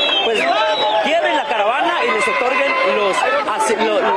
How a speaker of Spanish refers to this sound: las visas temporales, perdón, por hay que tanto ruido y tanta gente, las visas temporales que ellos quieren para cruzar México.